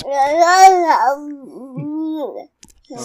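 A baby babbles in a few drawn-out, sing-song vocal bursts with rising and falling pitch, pausing briefly before one more short coo at the end.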